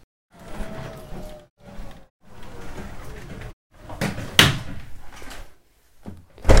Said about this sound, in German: Wir öffnen das Garagentor. Abrimos el garaje.